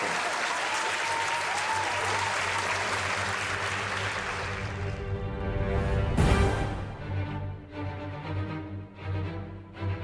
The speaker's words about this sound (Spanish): Para presentarles con los aplausos el señor Alan Silvestri en la banda del